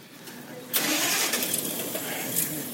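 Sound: bus engine starting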